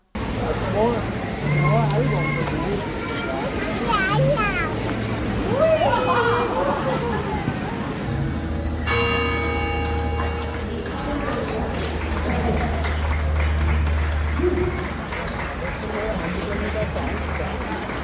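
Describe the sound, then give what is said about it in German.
Lively outdoor street festival ambience at the Rheindorfgassenfest on the Rheindorfgasse in Rudolfsheim, held on 3 and 4 September: a steady crowd hubbub with overlapping voices and children playing, joined midway by a sustained tonal, music-like sound before the busy chatter carries on. “Sie lässt uns akustisch am diesjährigen Rheindorfgassenfest teilhaben – das ja am 3.”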